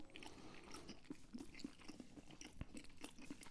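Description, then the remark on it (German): Loud, wet chewing right up against the microphone as people eat a habanero-flavored snack, with repeated crunchy bites and smacking sounds in an irregular rhythm, no talking. “Vielleicht haben die Leute gedacht, wir werden professioneller und schmatzen nicht ins Mikrofon bei mir in The Homies der neuen Staffel, aber hell no.”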